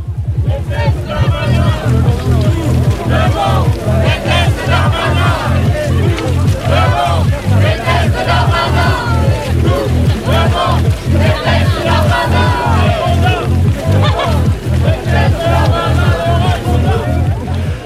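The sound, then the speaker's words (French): A large protest march crowd chants and cheers loudly as the marching processions applaud and cheer on spotting neighbouring processions in the distance, voices pulsing in a steady rhythm of roughly two beats per second, with dense babble filling the gaps throughout. “Les différents cortèges applaudissent et acclament lorsqu'ils aperçoivent au loin les cortèges voisins.”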